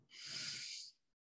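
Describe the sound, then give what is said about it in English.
A single deep, airy breath drawn in through an open mouth during a guided breathing exercise, fairly loud, a broad hiss that swells for nearly a second and then stops abruptly. “This time, I really want you to open your mouth. So you're almost doing like a, like this. so breathing in.”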